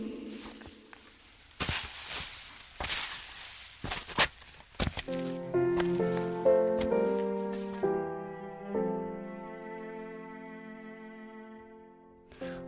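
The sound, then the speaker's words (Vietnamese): Several crunching, rustling footsteps push through grass and brush on a trailless mountainside, walking to a grave, loud, for a few seconds before gentle melodic music takes over and carries on alone. “Vì không có đường mòn nên phải phát bụi cỏ và đi bộ một chập mới đến.”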